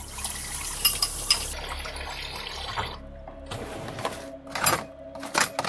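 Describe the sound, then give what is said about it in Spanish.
Water runs from a tap in a kitchen with a steady rushing hiss while dishes are washed, clinking and clattering, the flow easing off midway and leaving sharper knocks of plates and utensils. “Lavó algunos platos de la cocina.”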